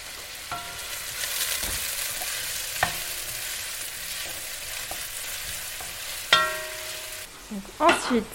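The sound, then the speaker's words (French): Onions, just added, sizzle steadily in hot oil in a pan over high heat, a continuous crackling hiss punctuated by a few sharp clinks of a utensil against the pan and some stirring scrapes near the end. “Donc là, on vient de mettre les oignons.”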